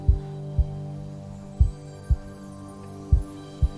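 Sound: heartbeat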